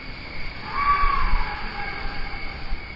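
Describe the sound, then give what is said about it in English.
An axis deer bull lets out a single drawn-out, reedy bellowing call, fairly loud, over a steady hiss of outdoor background noise with no talking, recorded at about 4 a.m. at Joshua Creek Ranch in the Texas Hill Country. “my favorite venison, axis deer. I actually recorded that big bull calling at about 4 o'clock in the morning, one of my trips to Joshua Creek Ranch in the Texas hill country.”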